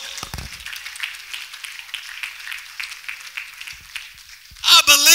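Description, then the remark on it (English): An audience claps their hands to the Lord in a dense, steady patter for several seconds, before a loud voice breaks in near the end. “If you believe that this morning, clap your hands to the Lord.”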